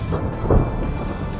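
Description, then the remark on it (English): A thunderstorm rumbles low and heavy, a deep roll of thunder swelling briefly over a steady hiss of rain. It stays loud and continuous throughout, with no voices. “the giant red spot on Jupiter, a storm that's bigger than Earth itself.”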